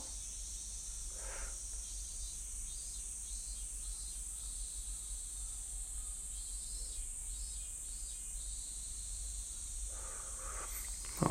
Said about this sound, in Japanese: うん、これはミンミンゼミとクマゼミかなミンミンミンミンって言ってるやつがミンミンゼミで、なんかシーって言ってるのがクマゼミかな